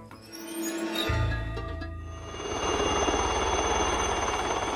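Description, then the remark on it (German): A Super Puma helicopter flies low, 90 meters above the ground, over areas of Switzerland in tight lanes during an annual measurement week, its roar and rotor thumping in a steady rapid beat that grows louder and fuller partway through. No one speaks. “Ein Helikopter des Typs Super Puma war im Tiefflug unterwegs, 90 Meter über dem Boden.”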